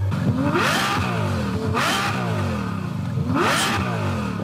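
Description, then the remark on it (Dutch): A synthesized Ferrari engine sound, made for fitting to an electric car, revs loudly three times, each rev a rising growl that climbs in pitch and falls back, with a steady rumble between and no talking. “Ja, dus eigenlijk kun je dan een elektrische auto uitrusten met bijvoorbeeld dit geluid.”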